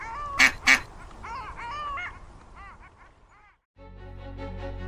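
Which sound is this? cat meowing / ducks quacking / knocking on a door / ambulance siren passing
ducks quacking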